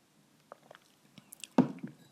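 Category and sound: human body sound, drinking water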